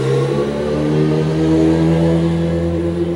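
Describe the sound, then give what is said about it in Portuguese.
A passing car's engine runs loud, its revving drone holding steady with a strong rumbling hum throughout, no voices over it. “Deixa eu passar esse barulho aqui de, de, de, de carro.”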